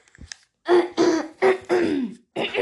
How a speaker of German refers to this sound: Nein, ich muss immer husten.